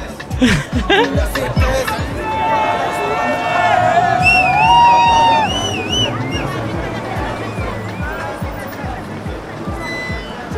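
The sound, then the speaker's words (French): Loud, dense street noise in Marseille, France: a teeming crowd chatters over the low rumble of cars everywhere, and several drawn-out car horn blasts ring out mid-way before the steady hubbub carries on. “Alors je sais pas si tu entends, mais il y a du bruit puissance 1000. Des voitures partout, des klaxons, des gens qui grouillent.”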